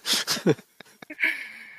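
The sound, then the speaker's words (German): A voice fakes snoring: a few rough, breathy snorts and small clicks, then a drawn-out wheezy whistle on the exhale, moderately loud, with no talking. “Schnarcher werden rausgeschmissen.”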